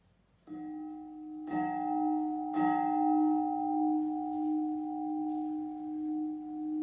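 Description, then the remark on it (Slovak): A church bell, dedicated to the praise and glory of God in honour of Jesus Christ the King, strikes three times about a second apart, each clang blooming into a long, steady hum that rings on loudly and fades slowly, with no voices present. “Tento zvon, zasvetený na Božiu chválu a slávu, je na počesť Ježiša Krista, kráľa.”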